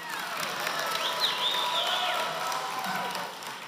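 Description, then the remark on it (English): An audience applauds steadily for a few seconds, a dense, even wash of clapping with scattered crowd noise and a few whistle-like tones, and no one speaking over it. “Don't give him applause because he was not helpful.”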